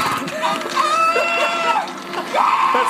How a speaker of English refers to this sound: That's so second part of that scream, by the way, it goes from like ah to like rah! He- like a velociraptor. That happens a lot on this show. God. Every movie just keeps reusing the Velociraptor yell.